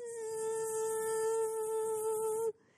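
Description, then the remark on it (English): A mosquito whines in a steady, high-pitched drone for a couple of seconds, then abruptly cuts off into quiet. “And you know, you're laying down in your bed at night and, and you turn off the lights, and all of a sudden there's this noise.”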